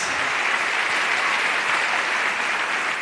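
A steady round of applause from many hands, a dense, continuous clatter of clapping that holds an even loudness throughout the three seconds without any speech over it.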